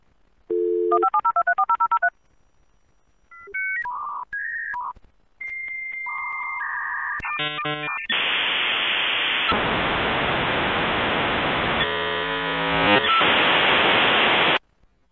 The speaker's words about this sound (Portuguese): Quem usou a internet no começo dos anos 90 vai lembrar disso. O modem faz o handshake, aquele barulhinho nostálgico que povo da minha idade conhece.